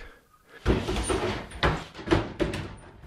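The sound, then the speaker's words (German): A clothes hanger stand is pulled out of a wardrobe trunk from Fifth Avenue, New York, with a series of sliding scrapes and soft knocks, in several short pushes over a few seconds. “Der hat auch Kleiderbügel drin. Das ist dann geht man rausziehen und dann der Ständer.”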